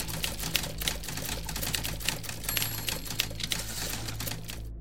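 Several typewriters clack steadily in quick, irregular bursts of keystrokes, with a low hum underneath, continuous throughout before stopping abruptly at the end.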